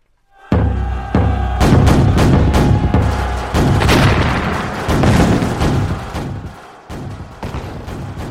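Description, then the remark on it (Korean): A heavy barrage of cannon fire from several camps firing at once during an assault on a castle wall, loud booms overlapping in quick succession with deep rumbling low end, the volleys continuing densely for several seconds without any voices. “대포 소리가 우레와 같이 하늘과 땅을 진동시켜서 수십 리 밖에 있는 크고 작은 산들까지 요동하였다.”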